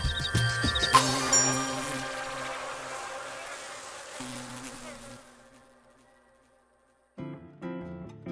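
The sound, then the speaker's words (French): A blue bottle fly buzzes loudly with a steady droning hum, gradually fading away into a brief silence before another tonal sound starts near the end. “C'est la première fois que je reçois une mouche bleue en consultation”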